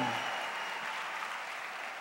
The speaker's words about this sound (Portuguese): Vamos aplaudir Jesus por Leblon. Deus abençoe Leblon.